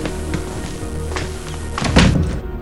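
A house door thuds, with a few light knocks and bumps leading into one heavier, louder thunk near the end, no voices.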